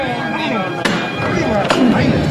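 A procession float is lifted by its bearers: two sharp, loud knocks land almost a second apart over a steady, dense wash of crowd murmur.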